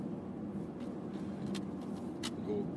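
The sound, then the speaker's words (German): A steady low rumble of tyres rolling on the road, heard from inside a moving car with the ventilation turned down, with a couple of brief clicks and a faint hiss above the droning hum. “Das ist nämlich ganz wichtig, die Abrollgeräusche zu hören, äh, weil wir heute tatsächlich abrollen.”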